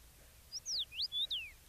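common rosefinch song

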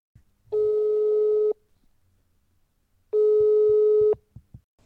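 telephone ringing

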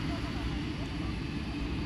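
loud aircraft engines running

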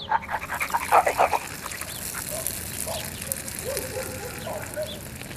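dog barking

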